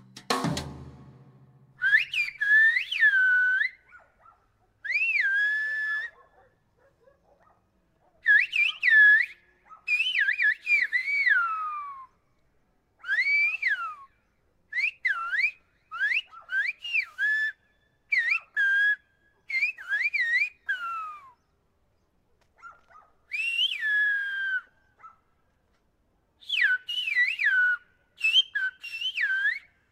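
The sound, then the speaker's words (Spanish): Two Canary Island whistlers, both ethnomusicologists, converse in silbo, the whistled language of the Canary Islands, exchanging loud, piercing whistles that glide up and down in pitch, in phrases separated by short pauses, with no spoken words. “Así suena una conversación entre silbadores canarios.”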